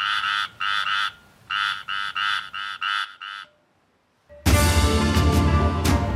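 A toad croaks loudly in raspy, evenly spaced pulses, first two then five, before a short silence gives way to a sudden wash of loud hissing noise.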